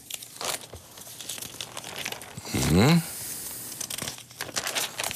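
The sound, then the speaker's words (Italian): A loud rustling, crinkling burst of paper lasting about half a second as the pages of the Italian newspaper Il Sole 24 Ore are turned to page 12, surrounded by softer crinkles and a brief murmur from a voice. “Giriamo a pagina 12.”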